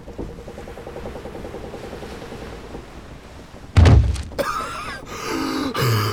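A low, steady hum runs for a few seconds, then a pirate drops a person onto the floor with one heavy, dull thud, followed by scuffing and shuffling noises.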